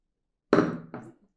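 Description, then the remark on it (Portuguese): Two heavy thumps on a table, the first loud and booming, the second softer a moment later, each with a short dull ring-out and no voices. “Eita porra, quebrar a mesa, velho.”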